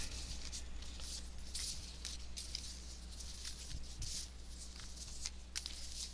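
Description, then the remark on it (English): Cards being mixed and shuffled by hand, a steady stream of soft papery slides and flicks with small irregular bursts, fairly quiet over a low background hum, with no talking. “I'm going to ask if you would mind shuffling. I'm just going to mix them because they're kind of hard to shuffle.”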